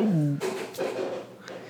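A cat knocks something over, making a few scattered clattering thumps at moderate volume, just after a brief falling voice-like tone at the start.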